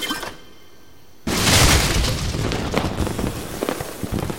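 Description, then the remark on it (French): After a moment of near silence, a seed cannon fires with a single sudden, loud boom, followed by a sustained crackling, rumbling roar that carries on to the end. No one speaks. “j'ai tout ce qu'il me faut pour faire fonctionner le canon à graines.”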